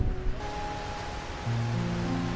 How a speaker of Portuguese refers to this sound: Olhe para esse oceano aqui, ó. Imenso.